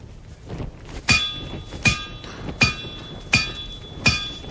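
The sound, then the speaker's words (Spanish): Henry keeps striking with a hammer: five blows land at a slow, steady pace, each a sharp clang with a bright metallic ring that lingers briefly before the next strike; no one speaks. “Valerie se va y Henry sigue dando golpes con el martillo.”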